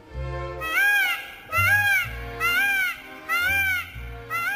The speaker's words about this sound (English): Unlike the other birds we've been praising throughout the show, the peafowl's call isn't quite as pleasing.